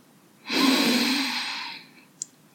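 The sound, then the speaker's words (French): A single long, deep inhale, clearly audible, a broad airy rush that swells quickly and slowly fades over about a second and a half, followed by a tiny click; no talking. “Prenez une grande inspiration.”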